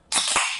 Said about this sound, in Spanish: Ahí está. Ahí está. Gran momento. Me estoy destapando una cerveza en la cocina de un amigo en Barcelona.